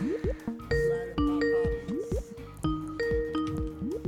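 An outgoing phone call tone, placed live on air to a sister network, of quick electronic beeps and short rising chirps repeats in an irregular pattern, clear for about four seconds, with no one talking.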